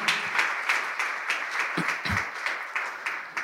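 An audience applauds steadily to welcome a visiting guest, a dense wash of many hands clapping at a fairly even level for a few seconds, with a couple of faint low thumps mixed in.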